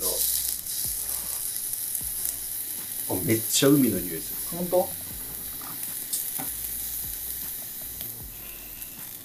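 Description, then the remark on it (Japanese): Steady sizzling and crackling of oysters on a hot grill runs throughout, with a few clinks and scrapes, while people chat over the frying noise. “なかなか牡蠣焼くことないじゃん。”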